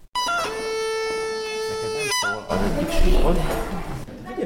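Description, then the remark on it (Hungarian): A Hungarian bagpipe (duda) sounds a steady, reedy drone for about two seconds, then cuts off; a rougher, busier burst of pipe tones and background noise follows as the instruments are tuned for playing together at a children's bagpipe lesson. “Ez most egy hangolás? Igen, most felkészítjük a hangszereket a közös játékra”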